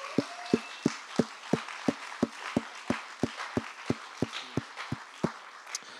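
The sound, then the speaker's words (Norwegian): Steady, rhythmic clapping in unison as applause for the pastors, roughly three sharp claps per second for the full six seconds, over a soft wash of background crowd noise, with no one speaking. “Liten applaus til pastorene våre, da.”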